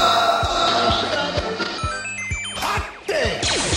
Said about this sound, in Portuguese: e você está ouvindo Semana dos 10. Vinheta!